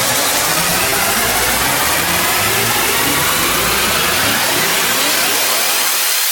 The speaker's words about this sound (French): Oh, ça va c'est des whoosh là. Là, c'est. très gros hein